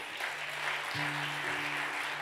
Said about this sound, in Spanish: Dale un aplauso fuerte.